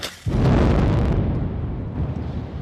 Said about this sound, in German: Eine graue Staubwolke wälzt sich über die Wiener Straße und damit ist die Hälfte des Görlitzer Bahnhofs gesprengt.